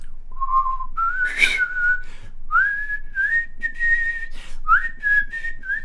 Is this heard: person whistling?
yes